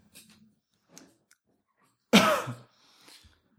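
A single loud, harsh cough bursts out, lasting about half a second, between faint scattered mouth noises and quiet rustles.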